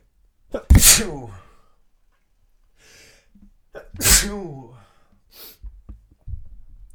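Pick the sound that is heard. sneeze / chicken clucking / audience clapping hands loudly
sneeze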